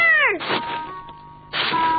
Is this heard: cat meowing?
yes